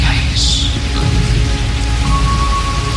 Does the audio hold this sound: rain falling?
yes